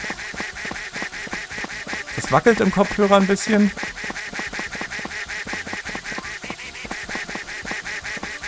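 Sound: duck quacking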